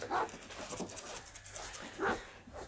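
A dog outside, afraid of a helicopter, gives a couple of sharp barks a couple of seconds apart, with steady, breathy panting running between them and no one talking.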